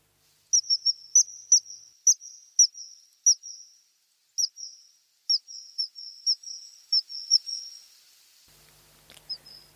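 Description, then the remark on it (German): A series of sharp, high-pitched whistled calls from a common kingfisher, repeated in a quick irregular run of about sixteen notes, clear, with no one speaking. “Hören wir uns kurz diesen besagten Pfiff an.”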